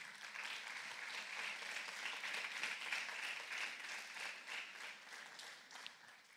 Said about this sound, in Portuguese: Inclusive, pode aplaudir o Senhor Jesus.